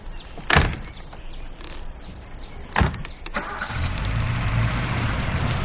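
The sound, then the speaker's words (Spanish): Two sharp thumps like car doors shutting, then a car engine cranks and starts, settling into a steady low rumble as the car leaves a yard, with crickets chirping faintly in the background. “El coche sale del patio.”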